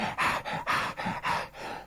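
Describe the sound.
A voice imitates a series of short, breathy gasps of pleasure, about four quick airy intakes in a steady rhythm, moderately loud with no words spoken.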